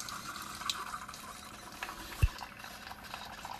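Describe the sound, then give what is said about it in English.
A Keurig coffee maker brewing, with a steady hiss of gurgling, bubbling liquid and a brief thump partway through; no one speaks. “As you can hear my Keurig again.”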